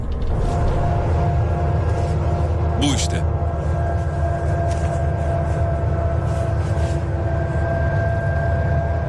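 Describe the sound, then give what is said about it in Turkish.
A steady, thin droning hum resembling sounds heard in the womb, played from an online video, runs unbroken throughout, dense and low with faint tonal lines, while a voice briefly speaks over it. “İnce bir uğultu böyle.”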